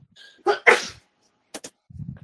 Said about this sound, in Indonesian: Iya, ini siapa yang bersin bersin? Gua.